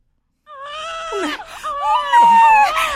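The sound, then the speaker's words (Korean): A newborn baby girl, just delivered, wails in loud, high-pitched cries that rise and fall, with a brief catch between two long bursts, unaccompanied by talk. “어머, 나왔어요! 딸이에요!”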